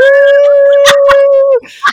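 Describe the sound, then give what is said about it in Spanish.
A voice imitates a stuck bicycle horn with one loud, steady, mid-pitched drone held for about a second and a half, broken by two sharp clicks, then a short vocal burst. “la cicla tenía un pito que era como, uh", y ese pito quedó atascado, entonces el pito era como, uh".”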